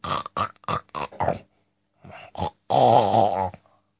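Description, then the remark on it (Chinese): A voice imitates a piglet snoring as it lies on an empty basket: a run of short, snorting grunts, a brief pause, then one longer, drawn-out nasal snore that ends abruptly. No words are spoken. “最后啊，伊并勿牢，伊趴辣搿只空个箩筐高头打了两声呼噜”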